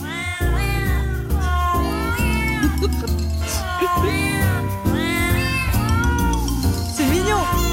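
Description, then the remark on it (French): A song made of cat meows arranged into the Happy Birthday melody, with rising and falling mewing notes over a steady musical backing, loud and continuous throughout. “C'est ton anniversaire alors, je voudrais te faire écouter notre, notre nouveau joyeux anniversaire de chat”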